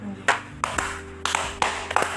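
A few scattered hand claps ring out at an irregular pace, sharp and fairly close, over a low steady hum, more a sparse smattering than full applause.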